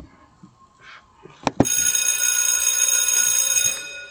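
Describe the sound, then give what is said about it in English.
A loud, continuous electric bell rings for about two seconds, right after a couple of sharp clicks, then cuts off. No one speaks over it. “You know when you hear the bell, school is in.”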